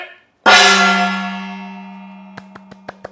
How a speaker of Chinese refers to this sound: 我们谢谢局长为我们开锣，我们今天就就为大家带来特别的节目《双簧》。